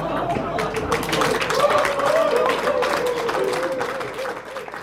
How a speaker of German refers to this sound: Auch an vielen anderen Stellen des Kandidatenduells fällt der Beifall für Nino Hase etwas lauter aus als der für seinen Kontrahenten von den Grünen.